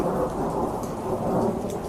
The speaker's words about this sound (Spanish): ¿Está lloviendo o es un efecto? Está lloviendo como siempre. Aquí siempre llueve.